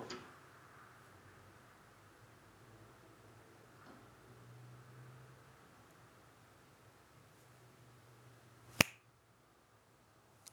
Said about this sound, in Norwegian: Prøv å knipse om ti sekunder fra tre, to, én nå.